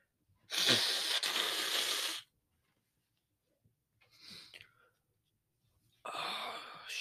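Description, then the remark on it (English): A loud, close nose blow, a long airy honk lasting over a second, then a shorter snuffle and another strong blow starting near the end. “Blowing my nose.”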